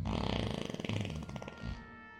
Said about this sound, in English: Snoring like a B 2 bomber dropping a payload of Z bombs and popping off fiery body burps like an Iraqi oil field.